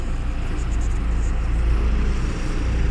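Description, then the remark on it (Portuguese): Steady, loud road noise from cars passing on a street, heard while waiting for a bus to go to work, a continuous low rumble of engines and tires with no distinct single pass-by standing out. No one speaks. “E provavelmente vai ter muito áudio ruído de carro passando.”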